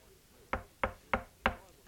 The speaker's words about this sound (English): Jesus is standing at the door and knocking.